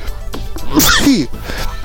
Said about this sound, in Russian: вот я еще и чихаю, помимо того, что зеваю.